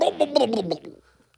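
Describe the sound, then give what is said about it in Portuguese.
A voice imitates a hot water bottle sloshing in a bed: a quick run of five or six wobbling, gurgly vocal pulses, moderately loud, fading out after about a second. “Eu tipo, abri a luz, epá, eu abro, eu acendo a luz e tenho um saco de água quente na cama.”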